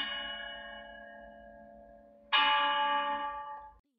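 Two bronze chime bells from an ancient Chinese bianzhong set, discovered in the tomb of an ancient monarch, ring in turn. Each struck tone is bright with layered metallic overtones; the first rings out and slowly decays, then a louder second strike blooms and fades before cutting off.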